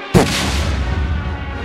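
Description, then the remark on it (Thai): A sudden, loud explosion bursts out, followed by a deep rumbling roar that lingers and slowly fades for over a second. “ลึงระเบิดนะฮะระเบิดเหนียวแบบลากอันทะลากไส้อะไรนี่แบบหลุดออกมาเป็นยวงนะฮะ”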